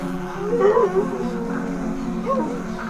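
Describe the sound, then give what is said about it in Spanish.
A nervous dog at a supermarket whimpers and whines in a couple of wavering, high-pitched bursts, with a short yip, over a steady low background hum. “El perro está nervioso y el hedor es insoportable.”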